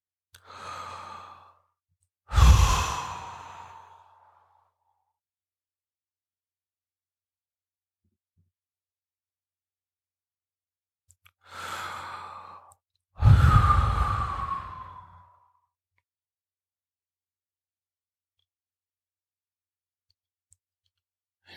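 Two slow, deep breath cycles, each a soft inhale followed by a heavier, louder exhale, separated by a long stretch of silence, taken as a breathing exercise during meditation. No one speaks.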